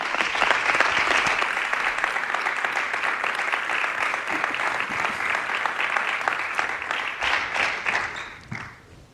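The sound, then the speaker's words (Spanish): Sustained applause from an auditorium audience for Belgian footballer Arthur Fermiren, new Club Atlético de Madrid signing, on stage: a dense crackle of many hands clapping steadily for about eight seconds before tapering off at the end. “El aplauso del auditorio para el futbolista belga.”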